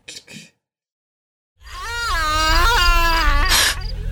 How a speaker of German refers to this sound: den Geisterschrei vom Anfang mit dem Tantenschrei von jetzt direkt hintereinander, okay. weil ich bin fast der Meinung, das ist derselbe.